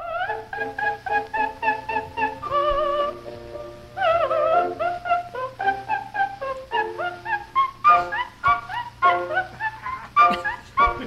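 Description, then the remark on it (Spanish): A soprano, daughter of a Pennsylvania millionaire industrialist, sings wobbly, off-key coloratura of the Queen of the Night, with rapid staccato runs and a few held high notes, loud over a faint low hum, as if from an old recording. “los gorgoritos de la Reina de la Noche no tienen, no tienen parangón.”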